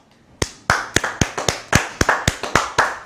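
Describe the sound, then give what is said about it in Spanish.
A brief round of applause, given as a strong round of applause to the Holy One, Blessed be He: about a dozen sharp, crisp hand claps in a fairly steady rhythm over three seconds, with no talking. “Es todo lo que quería yo enseñarles y bueno, pues vamos a dar un fuerte aplauso al Santo Bendito sea.”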